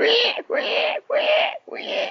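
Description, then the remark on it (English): A voice imitates a pig squealing in fright: four loud, shrill, wavering squeals in quick succession, each broken by a brief gasp, intense. “It fell down on the road and it ran down the hill towards the wolf, while the little pig inside was squealing away with fright.”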